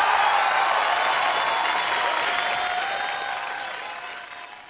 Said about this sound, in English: So going to give him some applause as a DC guy. Yay!